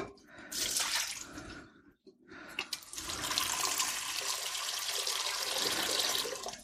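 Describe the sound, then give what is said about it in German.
Water runs from a tap into a cooking pot on the stove in a steady hiss, pausing briefly partway through before flowing again, louder and fuller, until the end. “Darum setze ich jetzt hier gleich schon mal ein bisschen Wasser auf.”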